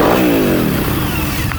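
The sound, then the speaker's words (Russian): A Harley-Davidson Muscle motorcycle, with a 1.2-litre, 120-horsepower, water-cooled Porsche engine, is started and revs loudly, its pitch sliding down from a high rev into a steady, rumbling throb that continues to the end, with no voices. “Выключай, тебя не слышно.”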